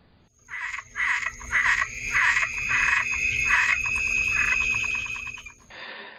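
A frog croaks in a steady run of about seven raspy, pulsing calls, loud, over a faint background hum with no voices.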